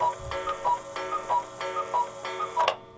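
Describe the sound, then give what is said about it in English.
A cuckoo clock ticks steadily, with even, moderately loud clicks repeating about three times a second and a faint ringing tone behind them. No one speaks. “You literally hear the cuckoo sound, and you think, oh my God, am I just.”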